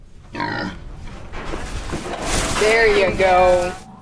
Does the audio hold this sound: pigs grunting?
yes